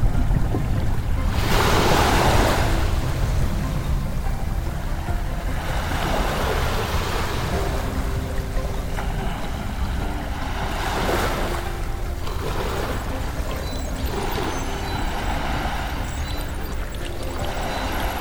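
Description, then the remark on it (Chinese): Ocean waves roll and wash continuously, a steady broad roar with several louder surges breaking through at irregular intervals, no voices present. “”好多好多的水，它们变成了好宽广、好宽广的一片大海。”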